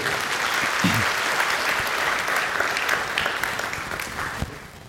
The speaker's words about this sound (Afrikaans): Geef vir die orkes 'n lekker hande klap toe.